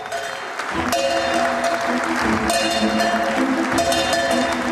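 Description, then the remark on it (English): Loud, sustained applause from a crowd with cheering at Saudi Aramco's stock market debut in Riyadh, accompanied by repeated bright metallic ringing tones, like a bell sounding through the clapping. “All right, let's show the celebration that happened overnight when Saudi Aramco made its long awaited market debut in Riyadh.”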